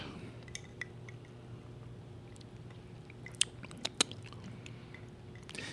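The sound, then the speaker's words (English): Quiet, wet chewing of black licorice candy, with soft irregular smacks and a few sharper clicks over a steady low hum. No one speaks. “Yep, black licorice.”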